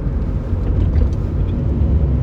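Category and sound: vehicle, car interior road noise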